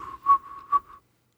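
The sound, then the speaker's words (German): A person whistles a brief melodic phrase from a classic Christmas song, a clear steady tone with a couple of swelling notes, lasting about a second before falling silent. No one speaks. “Was pfeifst du denn da? Hast du da ein Lied im Kopf”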